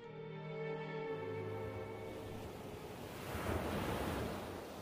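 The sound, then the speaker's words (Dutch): Steady rushing of sea waves heard from a ship's promenade deck, with a low engine-like hum underneath and wind buffeting the open air; the surf swells louder toward the end, no voices present. “En we zijn weer op het promenadedek.”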